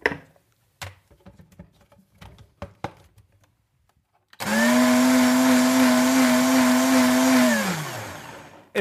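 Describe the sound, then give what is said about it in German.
A few scattered clicks and clatters, then an electric blender holding an old pair of underpants and a liter of water roars to life, whirring loudly and steadily for about three seconds before its motor winds down. “Okay, und jetzt mach mal den Mixer an.”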